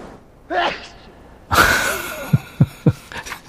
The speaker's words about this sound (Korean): 재채기 소리군요. 남 재채기 하는 거 이렇게 듣고 있으면 웃겨요, 그죠? 본인은 힘든데.